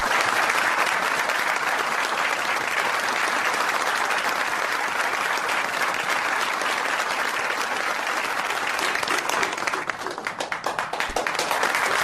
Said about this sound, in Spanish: Santos comienza a aplaudir.